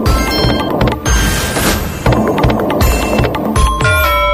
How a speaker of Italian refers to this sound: Giriamo la prima slot machine. Andiamo caro, andiamo caro. Cosa, cosa uscirà fuori?